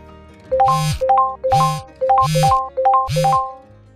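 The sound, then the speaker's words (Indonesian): Four phone notification chimes in quick succession as social media friend requests arrive on a just-unlocked phone, each a short rising two-note tone with a bright, slightly buzzy edge, evenly spaced and fairly loud, with no one talking. “Wah ibu banyak notifikasi nih bu Coba dilihat dulu Wah iya ini banyak friend request di media sosial.”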